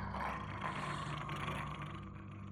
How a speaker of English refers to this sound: Something is standing in the room, growling at me. I remember why I'm here. I expected a chihuahua, Pomeranian fox terrier, not something so big. This dog, this illegal animal smuggled into our estate, this beast, this monster.